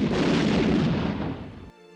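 A firing squad's volley of twelve rifle shots at the Château de Vincennes, Paris, on a cold, foggy morning erupts at once, a loud blast of overlapping shots blurring into a rolling, booming rumble that swells and fades before cutting off abruptly.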